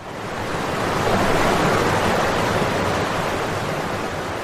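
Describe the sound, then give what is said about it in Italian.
A steady, full roar of water rushing over a river weir in Bologna, Italy, loud and holding constant without breaks or voices for the whole stretch. “l'acqua è, in effetti, uno degli elementi del quartiere”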